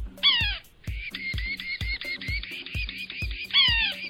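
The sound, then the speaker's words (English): A yellow-bellied sapsucker, a medium-sized woodpecker, gives a rapid series of harsh, nasal, mewing calls, fairly loud, over a steady rhythmic knocking in the background. “It's the yellow bellied sapsucker.”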